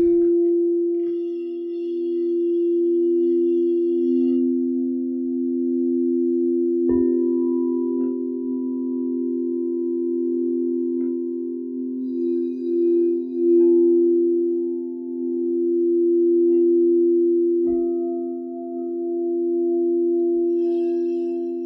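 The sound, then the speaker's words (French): Singing bowls ring in long, sustained tones that layer and shimmer, with a couple of soft strikes bringing in new notes around seven and eighteen seconds; no voices, steady and calm throughout. “Soyez sûr que les bols donneront exactement ce que vous avez besoin.”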